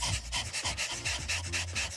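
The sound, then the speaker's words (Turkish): A person pants quickly and steadily in imitation of a dog as a breathing exercise, tongue out and hand on the flank, with about eight sharp, breathy huffs in two seconds, fairly loud, and no talking. “İkinci egzersiz köpek nefesi.”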